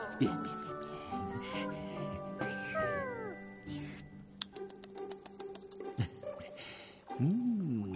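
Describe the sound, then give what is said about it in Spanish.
A voice imitates a flea the size of a cat eating a steak: meow-like squeals and whiny glides, then a rapid run of wet clicks and smacking, squishy munching noises, fairly loud, with no speech. “La pulga se come el chuletón.”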